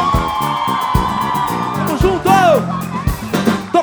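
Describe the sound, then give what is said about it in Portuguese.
A large concert crowd cheers and applauds loudly and continuously for the musicians of the band and the technical crew, with rising whoops and shouts breaking out above the steady roar of the audience. “Os aplausos de vocês aos músicos da minha banda, a ….”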